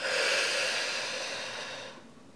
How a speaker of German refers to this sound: Wir atmen tief durch die Nase ein, gemeinsam. und atmen dann ganz bewusst durch den Mund aus